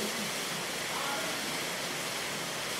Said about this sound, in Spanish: Tenemos una lluvia de granizo, parece piedritas de hielo.